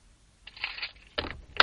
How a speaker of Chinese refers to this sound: 听到开门声，我迅速将电脑合上。